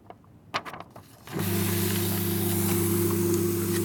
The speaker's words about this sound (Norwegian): Det du ønsket og drømte om, går nå i stykker. Nja, det går i makuleringsmaskinen i hvert fall.